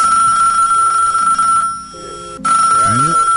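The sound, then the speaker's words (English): A telephone line rings with a steady electronic tone that briefly cuts out and then resumes, while muffled voices murmur faintly underneath. “Find off Cali P upon the phone line”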